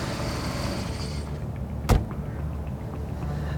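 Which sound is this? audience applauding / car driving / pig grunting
car driving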